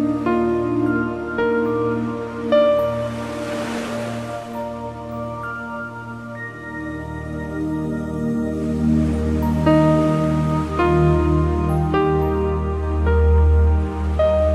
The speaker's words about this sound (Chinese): 好宁静。想，你隐约可以听到海浪拍打在沙滩的声音。